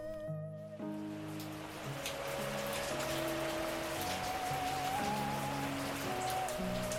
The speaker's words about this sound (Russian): Когда дождь забарабанил по земле с еще большей силой, Пунгу услышал во сне слабый звук гонга, который заставил его резко встать.